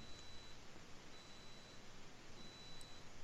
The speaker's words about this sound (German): Da ich, ich, ich ahne, dass hier gleich die Spülmaschine piepst.